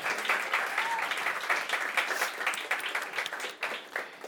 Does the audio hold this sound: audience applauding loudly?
yes